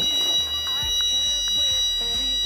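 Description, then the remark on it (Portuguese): A fire alarm sounds continuously with a steady, piercing high tone, fairly loud and constant, while low, muffled voices and room noise shift underneath. “Alarme.”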